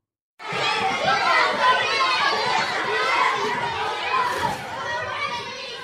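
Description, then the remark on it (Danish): A busy hubbub of many children chattering and shouting at once in a school class, filling the space continuously with overlapping young voices. “Lyden af venner, lyden af klassen, lyden af alt det, de kender.”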